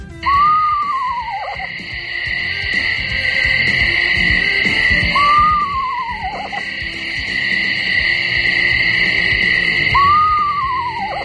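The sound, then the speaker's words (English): An eastern screech owl gives a territory-defending call: three falling, quavering whinnies about five seconds apart, each sliding down in pitch, set against a steady, shrill drone of night insects. “and a territory defending whinny like this.”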